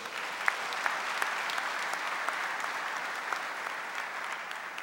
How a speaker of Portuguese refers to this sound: Esse é o nosso pai, gente. Quem ama este pai, aplauda ele bem forte.